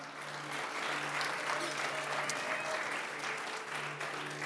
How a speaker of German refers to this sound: Ein Applaus für dich.